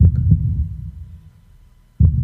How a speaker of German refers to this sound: Und spüre hinein in diesen Pulsschlag.